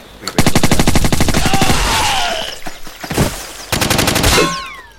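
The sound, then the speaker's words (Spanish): Rapid bursts of video game machine gun fire rattle loudly, two long strings of fast shots separated by a brief pause, with sweeping game sound effects in between. “es que no se usa porque a partir de 4, como no vaya a metralleta”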